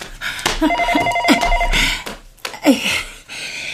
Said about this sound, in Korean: 그 시절은 가고 없으니 그만 돌아오라는 듯 전화벨이 요란하게 울렸다.